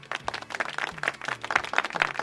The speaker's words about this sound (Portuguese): Léo, bota palmas aí para mim